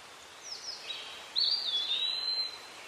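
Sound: birds chirping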